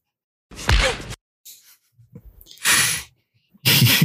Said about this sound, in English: they created the perfect sound effect for punching somebody. if if every movie that involved punching used the Indiana Jones punching sound effect, I would be a happy man.